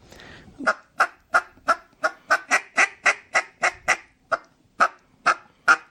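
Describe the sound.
A soft duck feed call, used when trying to finish ducks: a steady run of about fifteen short, clipped quacking notes in an even, rapid rhythm. It is moderately loud, with a faint murmur just before it begins.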